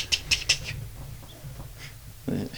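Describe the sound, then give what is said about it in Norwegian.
Three crisp keyboard clicks in quick succession, followed by a few fainter taps, over a low, steady background hum. “Antall klikk hørtes riktig ut.”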